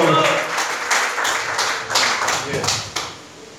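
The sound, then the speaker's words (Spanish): An audience applauds for the Lord with steady, dense clapping that continues for several seconds at moderate loudness, with some voices mixed into the crowd noise. “Denle el aplauso al Señor que se nos va a dar a Él, por favor.”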